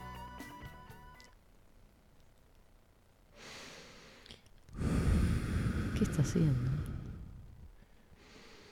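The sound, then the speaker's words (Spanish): A person takes slow, deep, exaggerated breaths, a soft inhale followed by a long, loud, breathy sigh-like exhale, after a brief spoken question. “¿Qué es esa respiración?”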